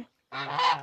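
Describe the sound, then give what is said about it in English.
A single loud, nasal goose honk rings out after a brief pause, harsh and buzzy with rich harmonics, lasting just over half a second. “and geese.”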